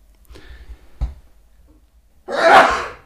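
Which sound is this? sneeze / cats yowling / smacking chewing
sneeze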